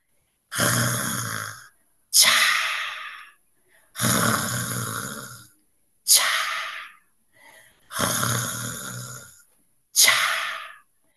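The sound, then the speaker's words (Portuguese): Loud, rhythmic snoring, six rough, breathy surges alternating long and short, swelling and fading like waves rolling in, with brief silences between and no talking. “Parece o barulho das ondas, mas são as estrelas roncando alto nas profundezas do mar.”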